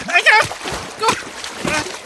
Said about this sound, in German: Wow! Hilfe! Schon wieder ein Spritzer!